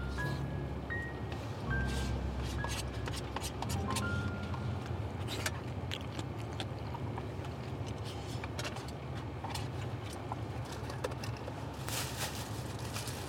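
ASMR eating of curry beef by two people: steady wet chewing and mouth clicks, with sharp scrapes and clinks scattered throughout, a dense, even-level texture with no talking.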